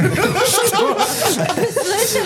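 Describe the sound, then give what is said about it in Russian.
A person makes breathy, snake-like hissing sounds, imitating a snake, mixed with chuckles and snickering laughter from several voices, loud and continuous for a couple of seconds. “Я думал, он заговорил на языке змей, знаешь, как Гарри Поттер”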